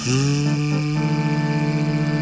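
A distant train whistle gives one long, steady blast, a loud, rich, buzzing tone that holds its pitch from start to finish, with a slight waver in the opening moments.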